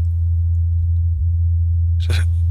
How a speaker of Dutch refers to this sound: Dit zijn. Eh, de rotors van de Ingenuity. Nee! Ja! ja maar het gekke is, je hebt daar geen lucht, nauwelijks lucht. Dus hoe moet je dan dat geluid gaan opvangen?